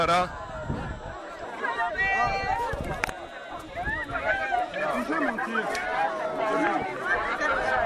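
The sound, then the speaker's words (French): A dense crowd of thousands of people pressing together at a procession, with horses entering onto the sand, fills the scene with a steady, loud hubbub of many overlapping voices, no single speaker standing out, with occasional sharp clicks and shuffling amid the continuous chatter. “enfin c'est des milliers de personnes qui sont là.”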